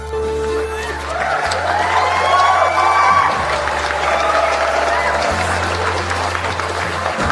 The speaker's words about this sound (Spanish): Ahora sí, palmas arriba.